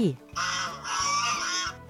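A goose gives a loud, harsh honk, one drawn-out nasal call lasting over a second, with a soft low pulsing underneath.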